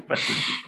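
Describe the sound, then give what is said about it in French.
A single short, fairly loud cat meow as the cat goes out, lasting about half a second with no talking over it. “c'est mon chat qui sort.”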